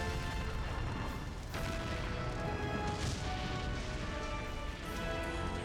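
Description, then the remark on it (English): A loud, roaring explosion inside a domed city fills the whole clip, a dense rumbling blast with fresh bursts swelling partway through and a ringing tonal layer running underneath, no voices. “You know, you would think an explosion like that would not be anywhere near safe inside of a uh, domed City.”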